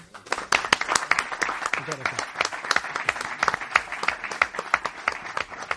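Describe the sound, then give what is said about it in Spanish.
An audience breaks into steady applause, a dense patter of many hands clapping at an even level for several seconds, with some voices murmuring underneath. “¿Le damos un aplauso?”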